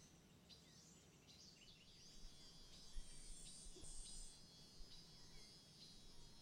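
Scattered bird chirps and calls of Amazon rainforest birds ring out over a steady, high insect drone, with a soft low rumble underneath; no voices are heard.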